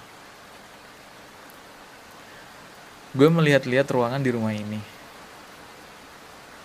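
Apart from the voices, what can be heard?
heavy rain falling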